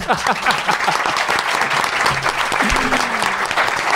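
A burst of audience applause, dense and steady clapping from many hands at a loud, even level throughout, with a few brief voice-like tones poking through the noise.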